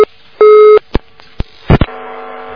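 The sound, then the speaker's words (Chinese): A telephone busy tone after a dropped call: steady mid-pitched beeps, one long loud tone followed by short clicks and pulses, then a fainter buzzing hum with no voices. “哎呀，哎呀，这个真是电话断掉了。”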